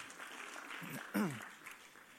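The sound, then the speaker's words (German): An audience applauds in a steady, dense patter of clapping that lasts throughout, with a short voiced shout or cheer rising briefly above the clapping midway. “Nochmal einen Applaus.”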